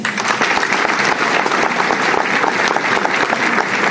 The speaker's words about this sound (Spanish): Y por último, último, para finalizar, quiero dejarlos con mi hermano, que él siempre me encanta como cierra, digamos, esta presentación de visión de negocios. Un aplauso para él.